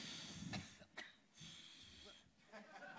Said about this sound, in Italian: Questo coronavirus. sta tossendo. Dalla Cina.